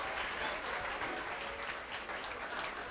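Steady applause from a crowd, a dense wash of many hands clapping at an even level for a few seconds with no break, no voices standing out above it.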